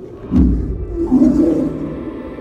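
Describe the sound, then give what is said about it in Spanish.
A deep, rumbling bear roar sounds loud, swelling into a sustained growl that rolls on for a couple of seconds before easing slightly. No voices accompany it. “Y tú puedes ir caminando y no te das cuenta que viene un oso siguiéndote y que está esperando el momento adecuado para caerte encima.”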